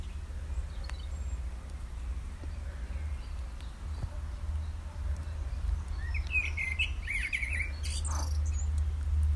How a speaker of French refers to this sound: Je crois qu'il y a un merle tout en haut. Je crois que c'est lui qui chante.